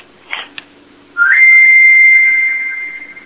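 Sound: mobile phone ringtone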